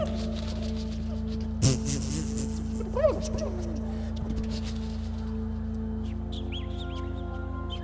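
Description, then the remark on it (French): A person whistles and chirps with their mouth, mimicking little bird calls in quick, warbling bursts, with a sharp click near the start and a steady hum underneath. “c'est pas du beatbox, mais c'est vocal, malgré tout, c'est sa bouche, là, ah. les petits cuicuis, les choses comme ça.”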